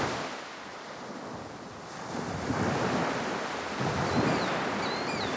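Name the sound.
strong wind blowing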